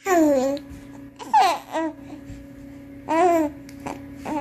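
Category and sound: human body sound, baby babbling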